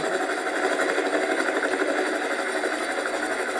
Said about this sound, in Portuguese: O BGA já tinha feito aquela viagem milhares de vezes, mas nenhuma igual a de agora, com nove imensos helicópteros voando sobre sua cabeça.